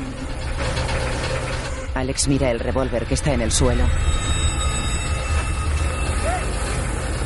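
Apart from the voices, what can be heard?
washing machine running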